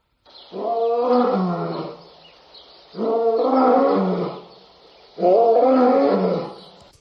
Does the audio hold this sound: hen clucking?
no